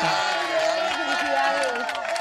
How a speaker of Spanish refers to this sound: un aplauso ¿eh? para los dos